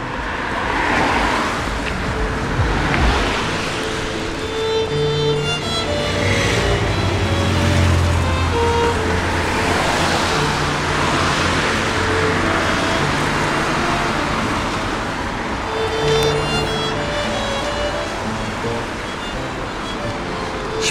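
road traffic

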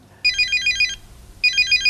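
telephone ringing

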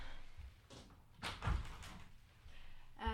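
door being closed

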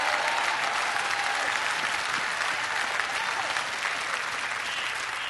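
audience clapping

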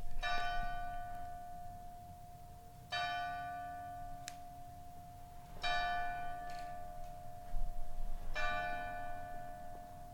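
church bell ringing

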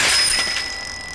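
bicycle bell ringing

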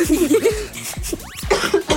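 cough

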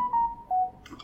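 mobile phone notification sound

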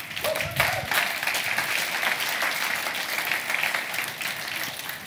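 audience applauding

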